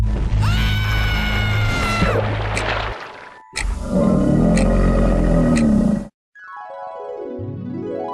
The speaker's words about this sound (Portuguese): Então todos ouviram um grito mas como estavam muito ocupados